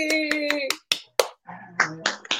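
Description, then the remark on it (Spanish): Scattered hand claps, about a dozen sharp smacks in an uneven rhythm, over steady tonal vocal sounds and brief voices rather than a dense crowd ovation. “¡Eh! aplausos.”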